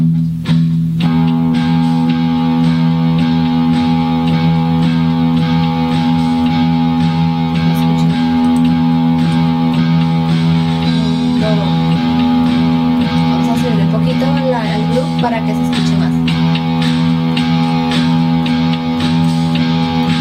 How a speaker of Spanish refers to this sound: De la siguiente manera yo tengo aquí mi eléctrica, aunque lo pueden hacer también con la acústica, la afinación es la misma, solo que acá pues yo tengo distorsión, entonces suena un poco más pesado.